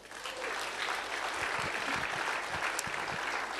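Steady applause during a church sermon fills the whole stretch, a dense wash of many hands clapping at an even, sustained loudness with no voices breaking through.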